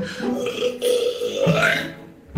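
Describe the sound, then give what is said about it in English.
A long, loud, rumbling burp by a woman, a world-record loudest female burp, with a raspy, gurgling tone that shifts pitch as it drags on for a couple of seconds, forceful, ending with a brief final gulp. “I just broke the world record for women's loudest burp.”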